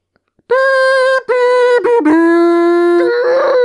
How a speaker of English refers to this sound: That was a caribou yelling at a train.